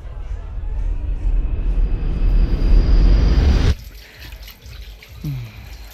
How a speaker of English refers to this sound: Why don't you go to the bathroom, splash some water on your face?